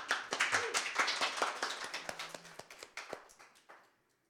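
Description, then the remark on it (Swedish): Audience applause: many hands clapping in a dense, steady patter that gradually thins and fades out over about four seconds, with no voices. “Tack så mycket. Stor applåd.”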